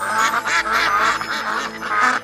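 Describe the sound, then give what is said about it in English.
A duck quacks repeatedly in loud, nasal bursts, about four or five honking calls in a quick, uneven rhythm, clear with no talking. “Ducks can swim, ducks can fly, and ducks can walk on land.”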